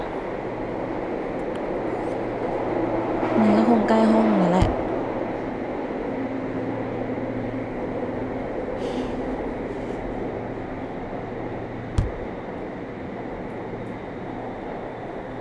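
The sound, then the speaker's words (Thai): A subway train runs along the rails with a steady rumble and a low humming whine, broken by a couple of sharp metallic clunks while people talk over the noise; the train has broken down and will run only to the next station. “ผู้โดยสารโปรดทราบรถขบวนนี้จะให้บริการที่สถานีหน้า หากท่านต้องการความช่วยเหลือกรุณาลงจากรถและติดต่อเจ้าหน้าที่สถานีรถเสียจริงขอวอภัยในความไม่สะดวกกูว่าแล้วแม่งวิ่งเลยชัวร์เชี่ยเอ้ยแต่สถานีหน้าคืออะไรอ่ะ กูยังไม่ได้ยินมันประกาศชื่อเลยนะ”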